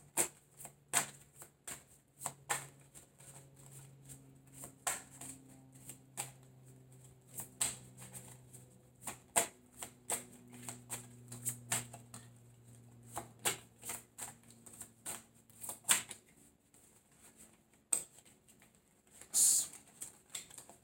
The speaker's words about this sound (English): When I picked up these cards to start shuffling them, it left one card down here.